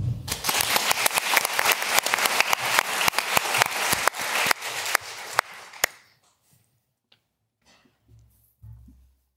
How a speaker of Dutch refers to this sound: Geef er een warm applaus.